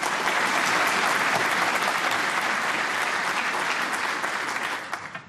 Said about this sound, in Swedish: Så eh, han förtjänar ju också en applåd. Det tycker jag.